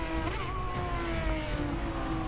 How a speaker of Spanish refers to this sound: la transmisión del auto del checo rezonga, como implorando que no lo castiguen tanto. Pero ya acostumbrado a este trato, rápidamente responde al estímulo de la inyección del combustible en el motor y en sus piezas mecánicas.